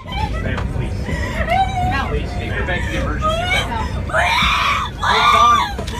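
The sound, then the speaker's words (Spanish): A woman screams hysterically in long, shrill wails aboard a plane in flight after her partner ends their relationship, over a steady cabin rumble, with murmuring passengers in the background; her cries grow louder and more desperate toward the end. “Como loca.”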